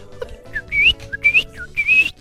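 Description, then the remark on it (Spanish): A person whistles an imitation of a courting bird's song: three rising, warbling phrases, each starting with a short low chirp and sweeping upward into a bright, trilling note, repeated in a steady rhythm. “y cantan y es y ahí vemos al pajarraco cantando y haciendo desmanes para llamar la atención de la hembra que más tarde se van a parear.”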